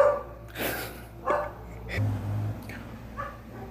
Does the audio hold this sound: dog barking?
yes